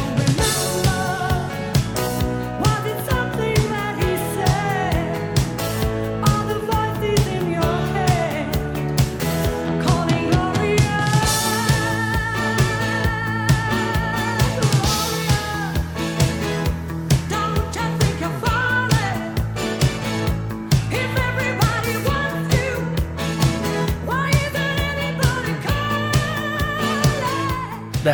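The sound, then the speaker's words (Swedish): A 1986 re-recording of a female singer's pop hit, made for her greatest-hits album, plays at a steady, loud level throughout, with a driving beat, bright synth-like tones and what sounds like a lead vocal carrying the melody. “1986, …, den låter så här.”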